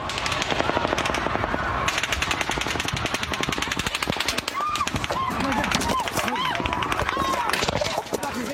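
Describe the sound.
Relentless bursts of rapid automatic gunfire crackle continuously, hundreds of shots fired from above into a crowd of about 22,000 at a country music concert on the Las Vegas casino strip at 10 pm, while the crowd shouts and screams in panic underneath, voices rising over the steady rattle of shots.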